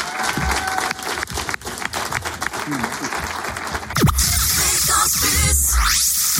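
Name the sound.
studio audience applause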